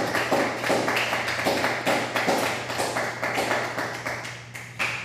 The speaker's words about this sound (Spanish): Un fuerte aplauso, de, esto es impresionante.